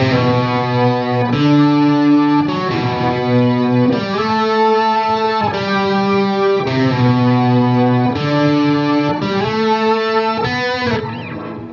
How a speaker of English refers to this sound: Um, see, the Synth Nine is another another nine pedal from Electro-Harmonix, yeah.